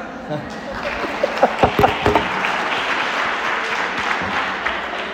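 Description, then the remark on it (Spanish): An audience bursts into applause after a number-guessing math trick, a dense wash of clapping that holds steady for several seconds, with a few sharper individual claps standing out near the start. “¿Qué Aplausos.”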